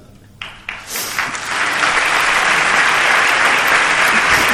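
A theatre audience at the Teatro Infanta Leonor, during the Jaén Holy Week proclamation, breaks into applause, starting with a few scattered claps that quickly swell into steady, loud, sustained clapping that continues without pause to the end.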